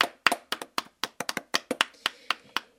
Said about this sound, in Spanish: Aplausos. aplauso por favor.